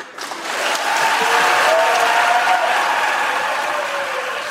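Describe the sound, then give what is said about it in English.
Sustained applause erupting in the US Senate chamber after a 53 to 47 vote confirming a justice's nomination, a dense wash of clapping that swells quickly and holds steady for several seconds, with faint voices and cheers mixed in. “It is, and uh, the only thing I'll note is that is that as that applause is erupting in the Senate chamber, uh, the you can it went on for a while.”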